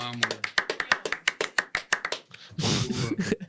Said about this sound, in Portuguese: Aê, palmas, palmas, palmas, palmas, palmas.